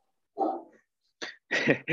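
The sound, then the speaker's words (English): A dog barks three or four short, sharp woofs in quick succession, the later ones coming faster and louder, with no one talking. “dog saying hi uh, sorry about that”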